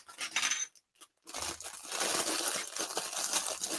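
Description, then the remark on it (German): Old, thin plastic parts bags being torn open, crinkling and rustling: a short burst, a brief pause, then a longer stretch of continuous crackly handling with no voices. The bags are not perforated and are thinner than today's. “Nee, die sind nicht mehr perforiert, aber sind andere Tüten als heute, sind deutlich dünner knistern anders irgendwie.”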